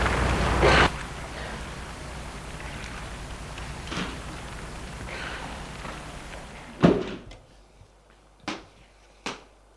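A door latch clicks sharply, then the steady background hush cuts out, followed by a few spaced clicks and knocks as a police commissioner comes through the door into the entrance hall of a building.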